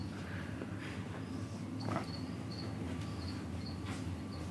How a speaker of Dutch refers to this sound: Ik hoor allemaal een soort krekelgeluiden of zo. Wat is dit allemaal? Oh, ik hoor allemaal beesten.